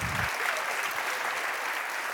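Steady applause from a crowd, a dense crackle of many hands clapping at an even loudness throughout, with a brief low thump at the very start.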